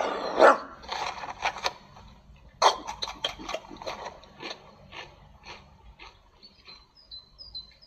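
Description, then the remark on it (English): A dog, Dan, gives two sharp, loud barks about two seconds apart, with softer clicking and shuffling noises in between and after. No one speaks. “Dan is a good dog.”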